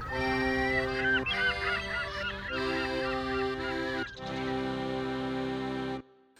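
A short mini-jingle with bright, brassy, honking tones moving through a few quick phrases, played loud with no talking, then cutting off abruptly.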